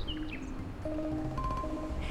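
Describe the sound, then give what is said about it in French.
Faint birdsong with a few short, high chirps early on, set against a quiet, steady background of low hum and soft lapping canal water, heard through the half-open door of a factory laboratory hangar in mild Swedish weather. No one speaks. “Depuis la porte, laissée entr'ouverte, le clapotis du canal et le chant des oiseaux donnent à l'usine laboratoire un côté presque poétique.”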